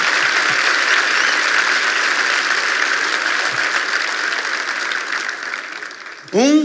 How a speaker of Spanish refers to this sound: Vamos, si vas a aplaudir, tienes que hacerlo con más ganas.